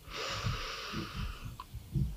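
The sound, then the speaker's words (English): A single slow, deep inhale taken to relax, a steady airy rush of breath drawn in for about a second and a half, with soft low thumps pulsing underneath. “Breathe in,”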